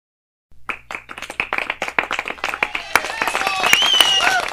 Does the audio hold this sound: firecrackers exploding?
no